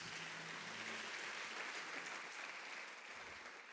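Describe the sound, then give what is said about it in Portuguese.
Steady applause for Jesus after a prayer, a dense wash of many hands clapping at an even, fairly loud level that holds throughout and eases slightly toward the end. No one speaks. “Se você crê, dá uma salva de palmas para Jesus.”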